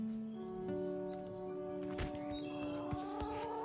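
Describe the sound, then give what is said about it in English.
A few faint, high chirps from a small bird, probably a sparrow, come from a short distance over a steady background drone, with a soft knock partway through. “I don't know if it's a sparrow or.”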